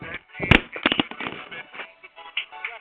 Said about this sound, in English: Look at me listening to it. I just banged phone. my goddamn phone on the fucking floor. Oh, my phone done banged up now.